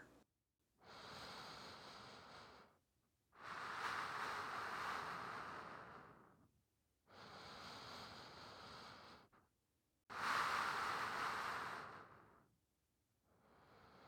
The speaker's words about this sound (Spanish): Presta atención al sonido de las olas del mar. Suave rítmico, sereno, tranquilizante.